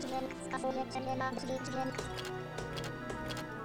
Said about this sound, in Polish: To jest dźwięk, który właśnie pokazuje, że tu są drzwi, można do nich wejść albo nie można, bo czasami są też zamknięte drzwi.